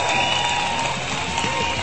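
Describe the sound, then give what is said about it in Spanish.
Steady, dense applause from an audience during a live broadcast of the station Radio Hits Universitarios from Mexico, a continuous wash of many hands clapping at an even, fairly loud level for a couple of seconds, with faint crowd noise mixed in. “Aplausos, no sean desgraciados.”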